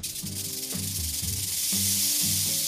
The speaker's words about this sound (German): Mit einer Schwanzrassel aus Hornringen produziert die amerikanische Klapperschlange auffällige Warnlaute.